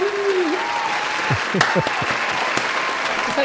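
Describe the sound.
A round of applause fills the whole clip with steady, dense clapping at an even loudness, while a few cheers and voices rise briefly over it.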